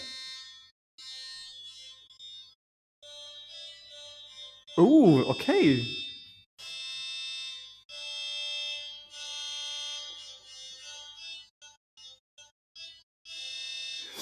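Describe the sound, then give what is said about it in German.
Buzzy, bright synthesizer tones from a homemade touch keyboard made with conductive tape, conceived as a one-hand synthesizer organ, play as a series of sustained notes that shift in pitch, briefly interrupted by a short spoken remark partway through. “ein Touch-Keyboard, ja, jetzt kann ich hier mal drauf, ich weiß nicht, ob man das hört.”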